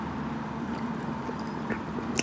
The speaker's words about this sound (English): and that's me having a sip of cola.